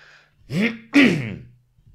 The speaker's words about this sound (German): für den Fall, dass ich diesen Räusper rausschneiden sollte.